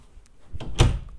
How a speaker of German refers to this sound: Erstmal möchte ich meine Tür zu machen, weil das stört mich gerade. Eine Sekunde bitte.